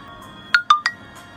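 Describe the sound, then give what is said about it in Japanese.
A smartphone notification alert plays three quick, bright electronic chime tones in rapid succession, clear, followed by a faint trailing tone against a quiet background. The notification announces that a recorded stream has been uploaded. “翼なき者さんの収録配信がアップされましたスマホの画面にそんな通知が届いた”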